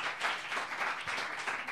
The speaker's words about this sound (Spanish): Gracias por llenar una vez más el Yo Nunca. Gracias, un aplauso. Gracias.